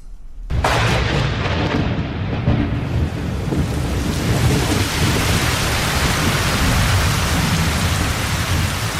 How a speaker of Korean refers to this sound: 그때 갑자기 검은 구름이 일어나 폭우가 쏟아지고 우박이 날렸으며 우레와 벼락치는 소리가 천지를 뒤흔들어 사람들을 놀라게 하니 형을 집행하던 관리가 괴이하게 여겼다.